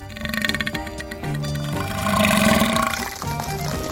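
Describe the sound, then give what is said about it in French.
A loud, slimy, wet squelching as a character vomits up an umbrella, gurgling and sloshing for several seconds with a drawn-out, liquid, cartoonish quality and no voices. “Il a vomi le parapluie Ah, c'est dégueu”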